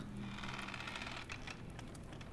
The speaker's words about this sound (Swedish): De hör en dörr gnissla.